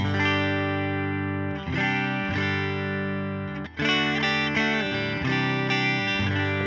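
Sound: electric guitar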